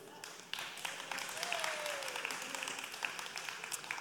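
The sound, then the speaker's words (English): A church audience applauds steadily for a few seconds during a sermon, a dense patter of many hands clapping, moderately loud with no one speaking over it. “I don't know how to take that clap right there because I said I'm weird and you clapped”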